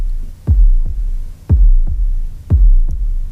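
Deep, throbbing heartbeat thumps in steady lub-dub pairs, used as a sound effect in a music recording, three heartbeats about a second apart, loud over a low sustained hum, with no voices.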